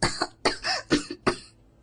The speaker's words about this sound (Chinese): 装作因为染上风寒而喉咙不舒服的样子，咳嗽起来，掩饰心中的慌乱